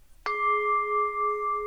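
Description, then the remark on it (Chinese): A singing bowl is struck once and rings on with a steady, bright tone of layered pitches that slowly waver and pulse as it sustains, with no voices. “这是波的声音。”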